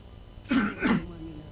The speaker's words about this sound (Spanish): Me agarro un poco de tos.